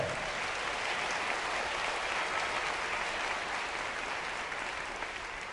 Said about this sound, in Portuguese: Você acredita nisso? Então aplaude e glorifique o nome do Senhor.